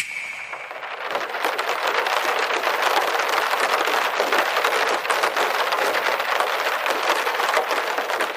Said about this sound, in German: Einmal Regen für dich, Tessa.